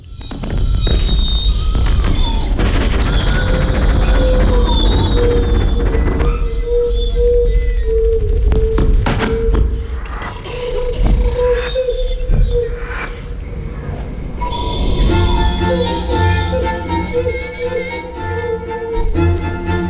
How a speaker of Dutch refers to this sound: Ik wil een eh, fragment laten horen van een bewerking van de vierjaargetijden van Vivaldi.